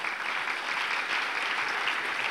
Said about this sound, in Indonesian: Berikan tepuk tangan beri bagi Tuhan